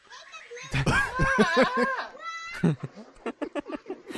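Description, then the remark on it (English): A goat lets out a loud, wavering, human-sounding scream lasting over a second, then a shorter cry, followed by quick bursts of voices and laughter. “I know, but I don't know what l- lamb screaming sounds like, so I'm just imagining goat yelling like men.”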